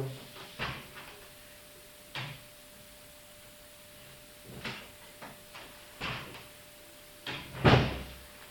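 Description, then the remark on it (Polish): A door is opened briefly and closed: a series of clicks and knocks from the handle and latch, ending in a louder thud as it shuts. No one speaks. “Teraz może otworzę na chwilę drzwi i zamknę.”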